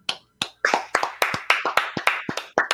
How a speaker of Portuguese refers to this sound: ó, vamos, vamos te aplaudir, cara.